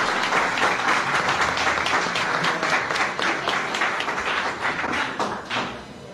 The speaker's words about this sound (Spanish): Usted está negando entonces que... lo aplauden. Lo mejor es que lo aplauden.